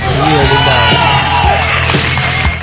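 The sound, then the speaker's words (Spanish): A loud crowd cheers and whoops with applause mixed in, a sound effect played on a radio show: a dense, continuous wall of voices and clapping that holds steady for the whole few seconds, slightly muffled. “Sí, vayan los aplausos para el chino. Ahí está, sí, sí, un aplauso.”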